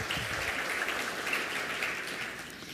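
A church audience claps steadily for a pastor for a few seconds, a dense, even wash of many hands with no voices over it, holding at a fairly constant loudness before easing slightly at the end.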